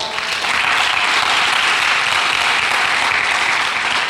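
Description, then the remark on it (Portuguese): An audience applauds the Lord for the word preached, many hands clapping together in a dense, steady roar that stays loud and even for about four seconds, with no voices rising above it. “Você pode aplaudir o Senhor pela palavra?”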